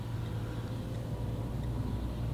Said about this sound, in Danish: Skal vi lige passe på en øh, lastbil her, der kommer en mand, der hopper heller om samtidig, og jeg ved ikke hvad.